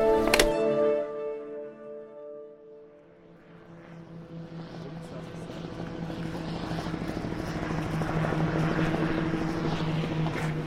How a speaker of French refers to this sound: C'est un drone. Un drone de l'armée. Comment tu reconnais les... Au bruit. Il y a plusieurs euh, pales qui tournent. J'étais mécanicien sur hélicoptère, ça me parle.